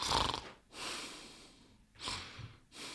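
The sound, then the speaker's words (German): A man imitates the snoring of a sleeping person with a series of breathy, rasping snorts and exhales, about four in a steady rhythm, fairly quiet and fading out, with no talking. “Tut so, als wenn er, der, er spielt das. Schnarch, ich schnarch nur. Blende. Schnarchen wird leiser.”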